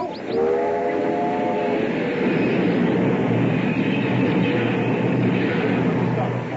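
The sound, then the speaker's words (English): A train rumbles steadily along the rails, loud, with a brief horn-like tone near the start and a continuous clattering roar throughout. “Caleb, stop the train.”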